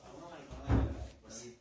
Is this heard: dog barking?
no